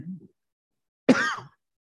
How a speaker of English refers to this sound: it's really bad when I cough. I bet that's terrible. or sniff my nose. All those things are probably magnified.